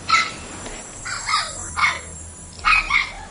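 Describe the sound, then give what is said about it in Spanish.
A dog named Carbonífero barks in short, sharp bursts, about five or six yaps in loose clusters with brief pauses between them, with no one speaking. “Bueno, en fin, este carbonífero que solo ladrando pasa.”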